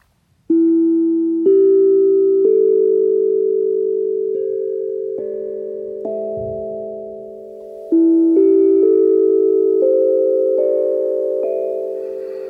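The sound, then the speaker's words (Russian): Soft, ringing notes of a steel petal tongue drum struck one by one with wooden sticks whose ball ends are wrapped in wool thread, about a second apart, each sustaining into the next, climbing in two rising runs, played alone without any talking. “Я играю сейчас такими э, деревянными палочками с э, шариками на концах, э, которые обвязаны шерстяной нитью, чтобы звук был мягким, но в то же время достаточно устойчивым таким.”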